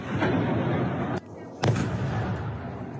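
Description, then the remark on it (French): Powerful explosions in eastern Ukraine at the start of the Russian offensive boom through a dense, roaring rumble, with a brief hush and then one sharp, loud blast standing out midway before the heavy din resumes. “Dans l'est du pays, de puissantes explosions”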